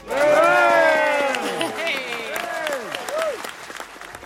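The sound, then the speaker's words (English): A large audience breaks into loud applause, with excited whoops and cheering voices rising over the clapping, then gradually settling over about four seconds, as The Botanist by MW Craven is announced winner of the 2023 Theakston Old Peculier Novel of the Year Award. “It was a really exciting moment, as you can hear, when um, MW Craven was announced as the winner.”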